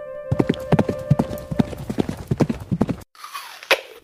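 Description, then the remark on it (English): A horse approaches to take an apple held out in a hand: rapid, steady clip-clop of hooves drawing nearer, loud and rhythmic, followed by a brief pause and a softer rustling burst with a sharp tap. “Oh, here it comes.”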